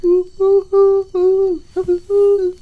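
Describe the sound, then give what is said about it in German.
Pigeon cooing: a loud run of about six low, hollow coos in a steady, rolling rhythm, with no talking over them. “Ist das eine Taube?”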